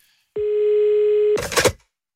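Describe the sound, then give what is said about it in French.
A steady telephone dial tone hums for about a second, then cuts off into a short, busy flurry of dialing sounds, fairly loud, with no voices, as a French politician phones members of parliament. “Donc il a pris son téléphone.”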